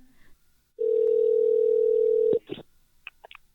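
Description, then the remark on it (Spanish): After a phone call is cut off, a steady, loud telephone dial tone hums for about a second and a half, then cuts off abruptly, followed by a few faint clicks and short noises. “Aló, hermana, hermana, se cortó, se cortó la comunicación.”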